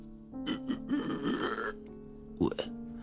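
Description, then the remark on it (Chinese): A voice imitates the raspy, strangled sound a woman makes, like someone whose throat is being squeezed tight: a long gravelly croak stretched over a second or so, then a brief pause and a short harsh gurgle at the end. “然而，那个女人发出了声音，就像是被勒紧喉咙时发出的这种，”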